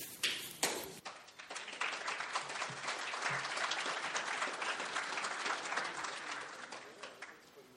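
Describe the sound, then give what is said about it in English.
An audience breaks into applause as a speaker from the Gideons comes up, a dense, steady patter of many hands clapping that swells after a few sharp opening claps and holds at a moderate level before tapering slightly at the end. “That doesn't happen very often that I get applause before I say anything, so I don't know whether it kind of has me unnerved now.”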